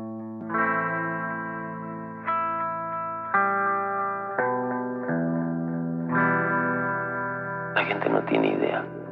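Effects-heavy guitar chords ring out one after another, each held and shimmering with chorus and echo, before a rougher, noisier burst arrives near the end.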